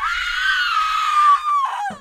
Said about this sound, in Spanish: gritó como nunca lo había hecho y salió corriendo a mitad del pasillo.